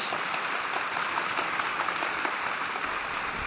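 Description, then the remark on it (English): A crowd applauds steadily, a dense wash of many hands clapping at an even level throughout, with no voices over it, as an audience thanks a San Francisco Ballet soloist who was the guest. “Please uh, join me uh, in thanking our guest today, San Francisco Ballet soloist”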